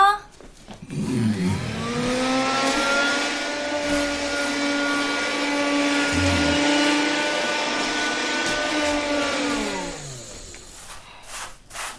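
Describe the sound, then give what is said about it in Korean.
A vacuum cleaner whirs up to speed, runs with a steady loud roar and high motor whine for about nine seconds, then winds down and stops. “청소기 훑은 차림 닦으면 되죠?”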